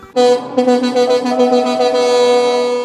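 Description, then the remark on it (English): Loud truck air horns blare in a rapid series of pulsing honks that merge into one sustained blast, as a convoy of trucks passes in a counter-protest in a province that relies on resource revenue. No one speaks. “A convoy of trucks rolling past, loud but peaceful.”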